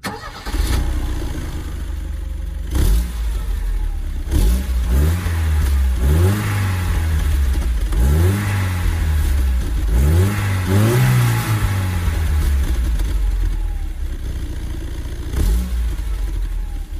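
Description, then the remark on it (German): A Mercedes 190 petrol combustion engine idles, then is revved repeatedly in rising and falling surges, about five strong revs in a rhythmic sequence before settling back to a steady idle, loud. “Es ist ein Verbrennungsmotor, so viel können wir schon mal sagen.”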